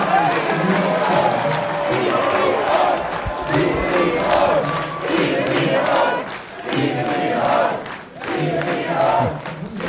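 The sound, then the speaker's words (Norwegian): A large crowd at the Høyre party's election night gathering cheers and shouts continuously in a loud, festive roar after Jonas Gahr Støre conceded defeat, with bursts of whooping and chanting rising and falling over steady applause-like noise. “Men det er klart at eh, det var merkbart bedre stemning på Høyres valgvakt. Der var det fest. Vi har litt lyd derfra også.”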